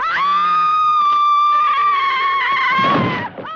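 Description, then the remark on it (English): A single loud, high-pitched human scream, held steadily for about three seconds with a bright, piercing tone before breaking off abruptly, with no other sounds around it. “Really effective screams tend to have fast vibration between those high and low notes, and that's what makes them so attention grabbing.”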